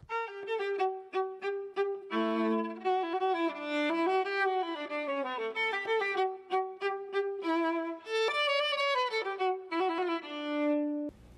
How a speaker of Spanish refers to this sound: La viola es un instrumento musical de cuerda muy similar al violín, pero de tamaño más grande y es de sonido más grave y suena así.